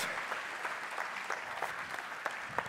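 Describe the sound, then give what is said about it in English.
An audience claps steadily for a man being introduced, a dense wash of many hands with scattered sharper claps standing out, sustained, with no talking over it. “Would y'all please give my man, Dr. Carl, Coach Bubba White, a round of applause”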